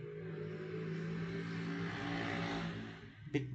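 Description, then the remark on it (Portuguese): A motorcycle engine drones steadily outside with a low, buzzing hum, swelling slightly then easing off as it passes. A short click comes at the end, and no one speaks. “Um segundo, a moto...”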